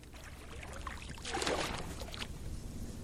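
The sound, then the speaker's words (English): Two reporters paddle a canoe across a lake in northern Michigan on a late September morning: gentle splashes and water swishing, with a fuller stroke swelling in the middle before easing back to soft lapping. No one speaks. “are canoeing through a lake in northern Michigan.”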